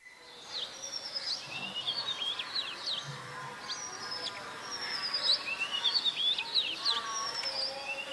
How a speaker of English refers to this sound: You can hear some voices from apartments perhaps in the background. You hear a lot of birds, which probably aren't there when planes and cars are running around.